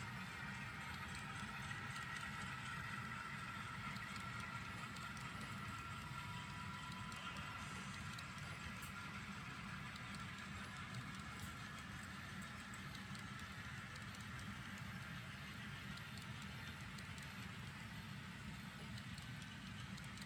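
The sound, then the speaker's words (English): An HO scale ribbon rail model train runs steadily along its track on John Parker's BNSF Fall River Division layout in Colorado, a continuous mechanical rumble with faint rhythmic clicking throughout, no voices. “It's an amazing HO scale ribbon rail train that operates on John Parker's BNSF Fall River Division layout in Colorado.”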